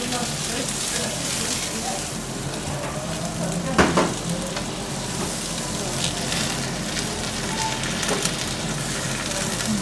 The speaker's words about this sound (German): Das brutzelt richtig schön jetzt.